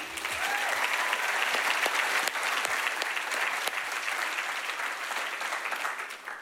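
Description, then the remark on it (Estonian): A large audience applauds the event organizers steadily, dense clapping at a fairly loud, even level for several seconds before tapering slightly at the end. “tervist siis ka minu poolt, et teeks veel ühe suure aplausi ürituse korraldajatele, et nad seekord niisuguse suure ürituse uues kohas on nii edukalt suutnud püsti panna.”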